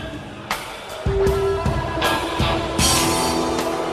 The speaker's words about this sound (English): What if it was played by your shitty, your brother's shitty like pop band, garage, garage band? Yeah, yeah. It, it, it might sound a little something like this.